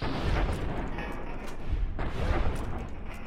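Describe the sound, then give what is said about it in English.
A loud video game explosion as a military cyber dog robot is blown up, with a heavy, rumbling low end that keeps roaring throughout, with a couple of sharper blasts punching through the dense, crackling din. No one speaks. “Sure enough, he was blown up.”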